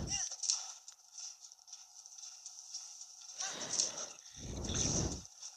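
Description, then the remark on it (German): Horse hooves clip-clop in two loud bursts of quick rhythmic steps near the end as a horse is ridden toward a blue marker, over a steady high-pitched ambient hum that runs throughout. “Das machen wir jetzt schnell mit dem Pferd als Fuß dann doch etwas lange dauern würde.”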